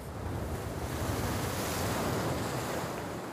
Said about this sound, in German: Die Wellen kommen näher, die Luft über dem Wasser ist feucht.